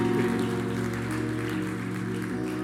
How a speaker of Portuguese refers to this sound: Se você crê, dê um forte aplauso.